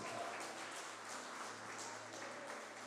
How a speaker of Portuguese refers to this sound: E se você crê assim, aplauda ao Senhor Jesus Cristo bem alto.